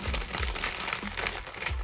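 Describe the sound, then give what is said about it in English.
A potato chip bag crinkles and rustles continuously in dense bursts of crackling with low handling thumps, filling the short stretch without any talking. “So I have my little baby right here who wants these potato chips if you hear them rumbling in the background.”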